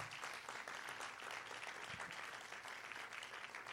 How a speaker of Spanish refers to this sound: Gracias que cuando tú me miras, vale, vale, vale el aplauso al Señor.